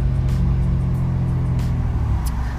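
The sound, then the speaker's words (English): A big truck rumbles by outside, a steady deep engine drone with a low throbbing growl that holds fairly loud for a couple of seconds, with no voices over it. “Like, it's like a big truck ride past.”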